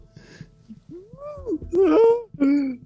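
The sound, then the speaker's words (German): Drawn-out wailing cries from a person, the pitch sliding up and falling in a few moaning bursts that grow louder toward the end, with faint background noise. “Weinen.”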